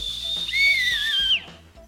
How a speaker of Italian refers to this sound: Posso fischiare io.